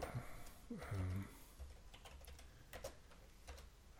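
Quick, irregular keystrokes clatter on a computer keyboard, a handful of sharp clicks scattered over a few seconds, with a brief low murmur near the start.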